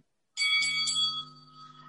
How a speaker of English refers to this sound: As the bell sounds for round one, all begins as expected.